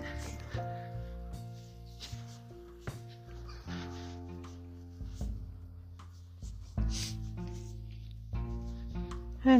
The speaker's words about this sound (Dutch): Wat je hoort op de achtergrond is de trein. Het is meer een goederentrein, dus dat betekent ook dat ik bijna thuis ben.